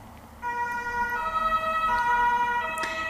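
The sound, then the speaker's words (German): An emergency vehicle siren rises in over steady traffic noise, its layered tones holding loud for a few seconds with no one speaking. “ja, mal wieder ein Notfall.”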